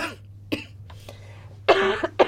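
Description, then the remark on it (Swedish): A sick, phlegmy person coughs several chesty coughs in uneven bursts: a short one first, then a louder, longer hacking cough followed by another quick one, over a low steady hum. “Men jag tror att det går tillbaka för jag är väldigt slemmig och hostig men jag mår liksom inte bra.”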